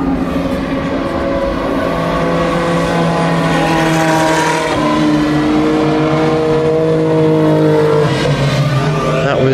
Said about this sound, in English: the Risi Competizione Ferrari, followed by one of the new closed LMP2 cars.